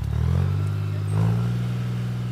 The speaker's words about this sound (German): Dann kommt Arpi mit dem Traktor, sammelt nach und nach alle Lesewannen ein und schüttet den Inhalt in die Lesebütte. 500 Kilo Trauben gehen da rein. Wenn die Bütte voll ist, fährt Arpi mit dem Traktor zum Traubenwagen und füllt die Trauben um.